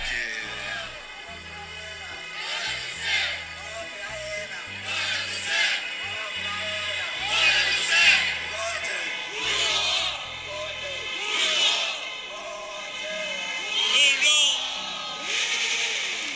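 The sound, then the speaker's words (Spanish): A crowd of voices shouts in Ukrainian in bursts over a steady low rumble, the yelling rising and falling repeatedly. “están algunos gritos en ucraniano.”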